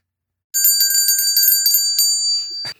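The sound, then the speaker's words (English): Bright, high-pitched sleigh bells ring out with rapid repeated strikes for about two seconds, a steady shimmering jingle that is loud, ending with a brief rustle. “Just hear those sleigh bells jingling, ring ting tingling.”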